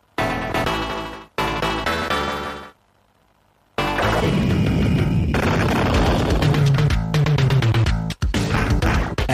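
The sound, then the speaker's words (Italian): Arcade-version game lightning strike shattering the player's tombstone at the start of the game, before entering battle: two harsh, crackling electronic bursts, a second of silence, then a long, loud roaring crash full of noisy crackle and low rumble. “Adesso immaginatevi la stessa musica identica, ma fate molta attenzione a come è sincronizzato il fulmine iniziale che romperà la nostra lapide e ci farà entrare in battaglia.”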